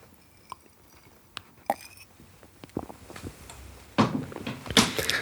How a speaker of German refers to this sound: Ähm, aber damit es überhaupt irgendwie klingt, muss ich mal eben einen Schluck trinken.